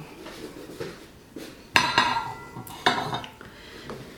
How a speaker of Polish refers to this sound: No więc ja sobie teraz te talerzyki rozłożę i na nich ustawię sobie talerze głębokie. Talerz płytki pod spodem, talerz głęboki, ten na zupę na wierzchu.